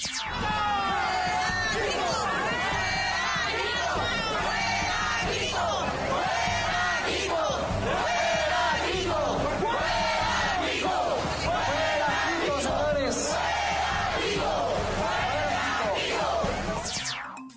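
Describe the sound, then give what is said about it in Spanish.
A large crowd of protesting families in Baja California chants and shouts in unison in the streets, demanding the resignation of Governor Francisco Kiko Vega de la Madrid; many voices rise and fall in a steady rhythmic cadence, loud and continuous throughout with a dense roar of overlapping yells underneath. “las familias baja californianas salieron a las calles en masa para exigirle al gobernador de Baja California, Francisco Kiko Vega de la Madrid, su renuncia.”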